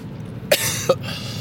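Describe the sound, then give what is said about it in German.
Two sharp coughs about half a second apart, harsh and chesty, with no talking in between, just a quiet background around them. “Dieser Dreckshusten.”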